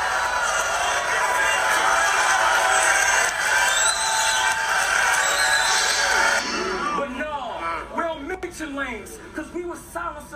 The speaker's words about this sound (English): The whole horse screaming and all.